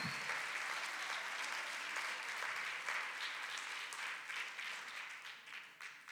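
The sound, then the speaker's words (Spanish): An audience at a sermon applauds the Lord steadily, dense overlapping clapping from many hands for several seconds at an even, sustained loudness. “Denle fuerte aplauso al Señor con todo el corazón, hermano.”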